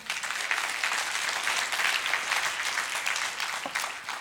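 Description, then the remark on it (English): A church audience applauds its deacons steadily, a dense wash of clapping from many hands that holds at a fairly even level throughout, with no talking over it. “Would you give it up for our deacons?”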